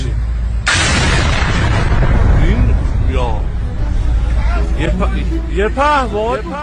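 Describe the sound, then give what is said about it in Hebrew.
A sudden, loud blast at night in the city centre of Isfahan, caused by a drone attack, erupts and rolls into a long, heavy rumble, followed by excited voices shouting and talking over the fading roar. “פיצוץ עז הרעיד בלילה את מרכז העיר אספהאן שבטהרן.”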